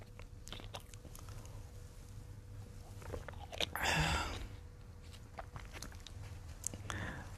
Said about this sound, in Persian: من یه خورده آب بخورم ببخشید